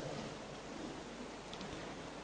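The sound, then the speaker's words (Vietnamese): A steady, dense hiss of heavy rain pouring down outside during a Buddhist retreat gathering, continuous and even throughout with no voices, at fairly low volume. “Vì hôm nay à, ngoài trời mưa tầm tã khá lớn.”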